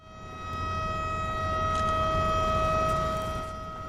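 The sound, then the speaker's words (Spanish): A warning siren announcing a bridge lift sounds one long, steady, unwavering tone that swells in after a moment and holds for several seconds over a low background rumble, with no one speaking; it sounds at 1:55 before one side of the bridge is raised. “A las 1.55, cuando suena la sirena que anuncia la elevación, acuden muchas personas a presenciar el acontecimiento.”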